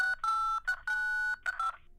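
A quick, uneven run of phone keypad tones, about five or six beeps of varying length with short gaps, loud, as keys are pressed by accident by a cheek.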